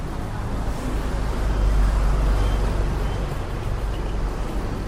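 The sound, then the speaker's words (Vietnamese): Steady, dense road traffic on National Highway 39 through Hưng Yên province, with cars, motorbikes and rudimentary vehicles rumbling past, a continuous low roar that swells slightly midway, with no talking. “Quốc lộ 39 đoạn chạy qua tỉnh Hưng Yên từ ngã tư phố núi đến cầu Triều Dương dài hơn 40 km, mặt đường nhỏ hẹp, lưu lượng phương tiện tham gia giao thông cao, cả ô tô, xe máy và xe thô sơ cùng lưu thông trên tuyến.”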